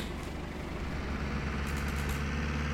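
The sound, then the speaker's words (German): The car engine of a limousine spawned in a video game idles with a steady, low rumbling hum that holds at an even loudness throughout, continuous, with no one speaking. “So, jetzt spawnen wir hier die Limousine”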